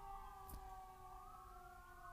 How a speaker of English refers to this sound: sirens. There were some sirens like five minutes before I started recording, so I didn't expect to hear them again this soon.